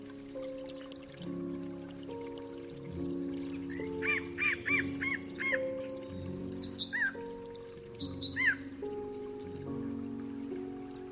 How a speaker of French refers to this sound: Écoutez l'eau tomber goutte à goutte, d'un robinet dans un seau à moitié plein, suit une portée de notes de musique.